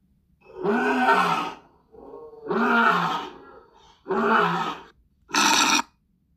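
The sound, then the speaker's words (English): A lion roars in four powerful bursts, deep and rumbling with rough, grunting texture, each separated by brief pauses; the calls are loud, with no voices present. “Yes, it's a lion. He was too fierce.”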